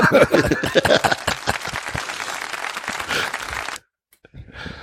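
Audience applause: a dense, steady patter of many hands clapping for nearly four seconds, with some voices mixed in, before it cuts off abruptly into near silence and a faint hiss.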